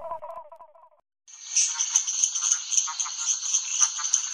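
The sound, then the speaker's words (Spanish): A call of Physalaemus natereri, a frog with two large black eye-like spots on its back, nicknamed the machine-gun frog: a loud, high-pitched, rapid rattling trill like machine-gun fire, running steadily for about three seconds after a brief pause that follows a short burst of lower pulsed notes. “Sin embargo, Janssen y sus colegas prefieren llamarla rana metralleta.”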